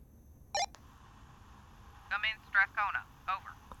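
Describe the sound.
A short electronic chirp and click from a walkie-talkie call, followed by a string of garbled, warbling radio bursts, moderately loud over a low background hiss.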